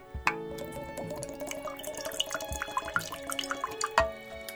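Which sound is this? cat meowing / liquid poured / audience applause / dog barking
liquid poured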